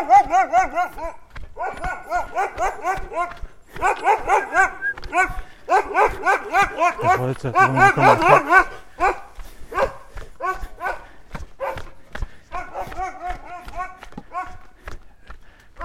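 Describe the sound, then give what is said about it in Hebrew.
A dog barks loud and insistent, in rapid repeated bursts that keep coming for about sixteen seconds with only brief pauses between volleys. “אה, הנה הכלב הנובח”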